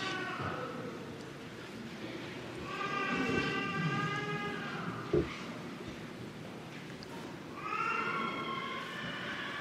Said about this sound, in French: Vous entendez peut-être des pleurs, c'est tout simplement que c'est aussi un pèlerinage pour les petits, les enfants, les familles. Il y a beaucoup de très jeunes enfants venus avec leurs parents à l'épine,